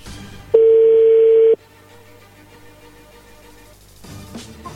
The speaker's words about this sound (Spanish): Bueno, le va a llamar el lobo, no hagan ruido ahí, entró la llamada, ¿ok?